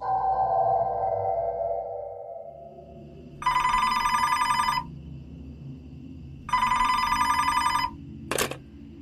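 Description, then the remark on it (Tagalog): A telephone rings twice at around 3:30 a.m., a call from the guest in room 206. Each ring is a loud, rapidly trilling burst lasting over a second, with a pause between, followed by a short click. A fading tone precedes the rings; no one speaks. “Pakiramdam ko talaga ay merong mali pero around 3.30 a.m. may tumawag na naman.”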